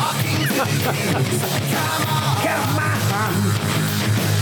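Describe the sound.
A man imitates a rock singer's screaming vocal, loud and strained, over a dense, distorted band playing continuously throughout.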